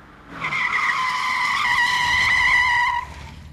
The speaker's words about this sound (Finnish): He olisivat halutessaan voineet pysäyttää auton äkkijarrutuksella tai kääntää rattia mihin suuntaan hyvänsä.